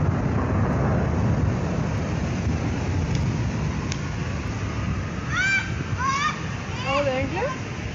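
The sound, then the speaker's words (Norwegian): Birds call at a small pond in Slottsparken, Oslo, Norway, on a grey Friday afternoon as children run around the pond, a run of honking, goose-like cries bursting out in the second half, several in quick succession, over a steady outdoor rumble of wind and traffic. “Barna løp rundt en liten dam og så på fuglene en drøy kilometer unna regjeringskvartalet.”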